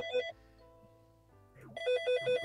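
A telephone ringtone for an incoming call plays in short bright melodic bursts, a brief electronic ring, a quiet pause with a low hum, then a faster repeating run of pulsing tones, fairly loud.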